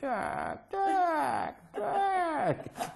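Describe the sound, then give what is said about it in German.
A human voice imitates drunk chickens falling off their perch and squawking pitifully: three loud, drawn-out wails, each wavering and sliding downward in pitch, separated by brief pauses. “Die fallen von der Stange und quäken dann ganz erbärmlich.”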